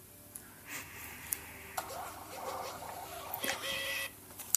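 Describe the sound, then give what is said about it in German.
A card payment terminal's receipt printer whirs and buzzes in short mechanical bursts with faint clicks, moderately quiet, ending with a sharp tick as the paper finishes, confirming that a card payment went through. “Dieses Geräusch sagt uns, ja. es hat funktioniert.”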